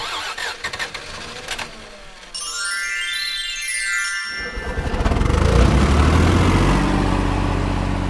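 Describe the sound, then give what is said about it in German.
An old tractor engine sputters and coughs, then catches and roars up into a loud, steady rumble that keeps running as the tractor drives off to bring in the hay harvest. No one speaks. “Scheinbar hat sich der Trecker meine Worte tatsächlich zu Herzen genommen.”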